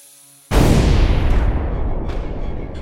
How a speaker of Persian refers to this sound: زودپس تو صورتش ترکید صدای ترکیدن زودپس چنان مهیب بود که حتی خودم که منتظر این انفجار بودم هم ترسیدم